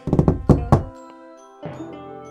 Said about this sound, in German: also, ich klopfe mal an der ersten Tür links an.